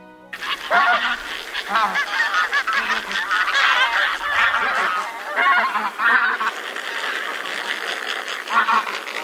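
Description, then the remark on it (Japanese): A large flock of bean geese, birds about 1 metre long, calls loudly as it suddenly approaches a rice field at nightfall in the dark, dozens of overlapping honks and wingbeats forming a dense, continuous clamor that barely pauses for the whole stretch. “今日はこの田んぼで寝るのかなと思っていたところへにわかに大きな鳴き声と羽音が急接近暗闇の中で思わず首をすくめました”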